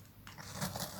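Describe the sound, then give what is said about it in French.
A bamboo spoon scoops through dry tea leaves to fill a tea bag, making a crisp rustle with small crunchy crackles that build in the second half of the second. “le froissement de la cuillère de bambou qui plonge dans les feuilles de thé pour remplir mon sachet”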